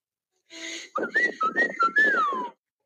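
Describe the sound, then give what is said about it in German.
A short human family signature whistle of a few stepped notes, clear, preceded by a brief rustle, ending in a long downward-sliding note that trails off. “Aber ich habe dann im Laufe des Wochenendes alle wieder, immer wieder gefragt, und wie ist der Familienpfiff? Sodass der immer wieder äh, aufkommt. Mhm. Und Moment, hier ist er zu hören.”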